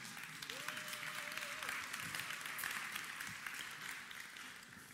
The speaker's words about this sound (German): Komm, Applaus